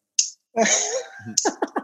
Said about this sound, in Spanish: se escucha el bolígrafo bien cabrón.